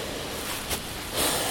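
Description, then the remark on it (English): Very gentle, light rain, almost like a mist, in cool weather makes a soft, even hiss that stays faint throughout, with one brief swell partway in and a slightly brighter, fuller wash toward the end. No one speaks. “Yeah, it's very gentle rain. It's just the lightest possible rain. It's almost like a mist.”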